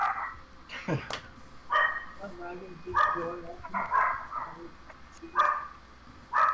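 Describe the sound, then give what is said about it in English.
A small dog barks repeatedly in sharp, high-pitched yaps, spaced about a second apart, moderately loud, with a few whiny yips mixed in. “Somebody's puppers are unhappy.”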